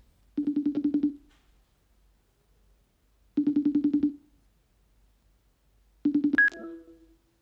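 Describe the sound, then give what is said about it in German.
A telephone line rings three times as a call is placed on a Saturday morning, each ring a short buzzing burst about three seconds apart, the last one cut off abruptly as the call is answered with a click. “Aber die Krise scheint einiges zu ändern und um zu verstehen, was genau, habe ich mal telefoniert.”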